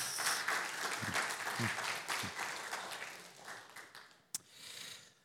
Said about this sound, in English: If we could just have a round of applause.